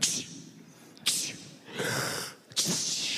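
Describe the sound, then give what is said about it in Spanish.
A voice mimics a string of sneezes, acting out the Bible story of the dead boy who sneezes seven times: sharp, breathy bursts in quick succession with short pauses between, fairly loud. “El chico estornuda siete veces. El muerto estornuda siete veces para que entiendan lo que está pasando.”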